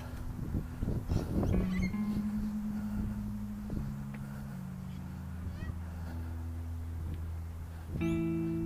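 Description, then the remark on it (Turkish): Parrots squawk from the top of a tree, a steady run of harsh, nasal calls overlapping one another, with a louder burst near the end. “Şurada oturayım papağanların altında. Ağacın tepesinde papağanlar var.”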